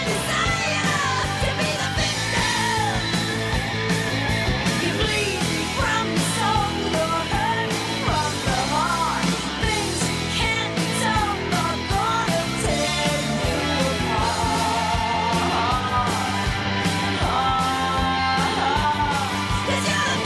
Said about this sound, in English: it's that big 80s production, but it, it's hard rock song and it's called …